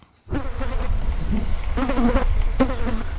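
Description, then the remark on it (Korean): A fly buzzes loudly in flight, a continuous droning hum that starts abruptly and wavers in pitch as it surges and dips, with no voices. “팔이 나는 소리 한번 다시 들을까요?”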